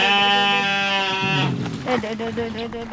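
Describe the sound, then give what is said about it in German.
A sheep from a farming family's flock, kept for meat, lets out a long, loud, wavering bleat, followed by shorter, rougher bleats and bustling farmyard noise. “Die machen das vor allem für ihre Tiere. Hier kann man sie auch hören.”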